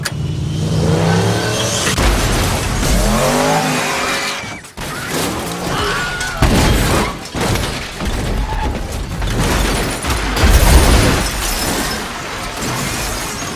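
A loud, chaotic car crash in a stunt scene: an engine revs hard, then metal smashes and glass shatters in bursts, followed by scraping and further impacts as Stuntman Mike's car scrapes the ground for more than 150 meters before stopping. The crash was performed by stuntman Buddy Joe Hooker.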